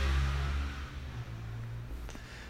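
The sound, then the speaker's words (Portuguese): Another motorcycle roars past, its engine drone loud at first and then easing slightly as it continues. There is no talking. “Meu Deus, cara, outra moto.”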